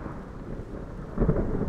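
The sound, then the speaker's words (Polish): Steady rain hisses under a low, continuous storm rumble in London in the evening, the storm growing ever more violent, with a heavier surge of thunder rolling in near the end. No voices are present. “Z nastaniem wieczoru burza stawała się coraz gwałtowniejsza, a w kominie wiatr jęczał i wzdychał jak płaczące dziecko.”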